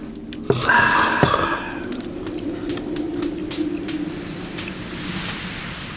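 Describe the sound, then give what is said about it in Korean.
Wind rustles steadily through the bamboo leaves of a bamboo grove, a continuous soft hiss with scattered crackles and a couple of brief knocks near the start, and faint bird-like tones early on. “야, 댄잎을 스치는 바람 소리를 들으니까 아, 옛날 생각난다.”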